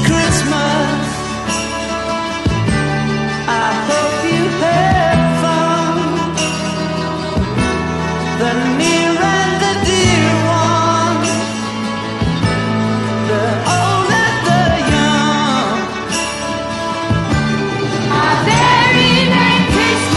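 A 2020 cover version of a Christmas pop song plays loudly and continuously, with a full band, sustained chords and a steady beat running throughout, and no one speaking over it.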